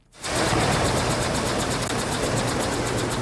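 A mechanical split-flap departure board of the Swiss railway SBB rattles, its flaps flipping in a fast, even clatter that starts abruptly and holds steady and fairly loud throughout, with no voices.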